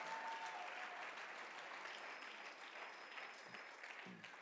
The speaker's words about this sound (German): von Herzen einen Applaus für das Production Team und fürs Licht.